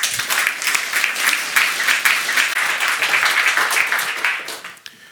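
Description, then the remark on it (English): Sustained audience applause at a Radboud Reflects lecture, welcoming the speaker Simon Glendinning: many hands clapping in a dense, steady patter that holds loud for several seconds before tapering off at the end. “But first, a warm applause for Mr.”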